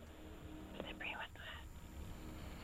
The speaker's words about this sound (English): Please don't whisper that Red to me.